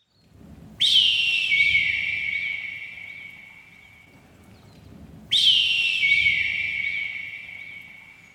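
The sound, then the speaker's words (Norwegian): A recording of the golden bird, made at a small bird cliff in Reknesparken in Molde: two long, clear whistled calls, each starting with a sharp, bright sweep and then settling into a steady ringing tone that slowly fades, separated by a few seconds of quiet hum. “Sammen med disse notatene fant jeg også et opptak av gullfuglen.”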